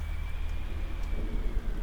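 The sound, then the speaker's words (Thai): Steady wind-driven rain pours down late at night with a deep, gusty rumble of strong wind underneath, a continuous dense wash of sound with no pauses and no voices. “ยิ่งดึกลมก็ยิ่งพัดแรง กันโชคหนักจนละอองฝนสาดเข้ามาในตัวบ้านเป็นระยะ”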